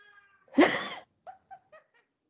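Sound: cat meowing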